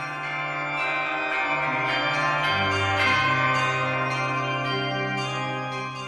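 Church bells ring steadily with regular strikes, their long humming tones overlapping and shifting between several pitches. The ringing stays fairly loud throughout, with no voices.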